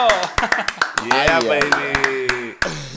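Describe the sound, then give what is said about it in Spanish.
A short burst of applause welcoming a guest: sharp, irregular handclaps, around a dozen, as if from only a few people, over a steady voice talking or laughing underneath. “Así que démosle un fuerte aplauso a nuestro amigo y hermano, el grande.”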